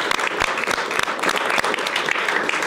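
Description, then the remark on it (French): The studio audience of the show Bistro Liberté applauds steadily, a dense wash of many hands clapping at once with a few sharper claps standing out, holding at a fairly loud, even level throughout. “et en effet, euh, merci de, saluer le public qu'on peut applaudir tous particulièrement”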